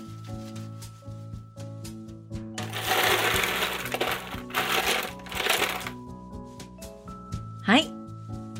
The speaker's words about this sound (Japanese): 氷を入れたから、ここにお皿を置いて。こうそうそう。そして、ここをくるくる回してみて。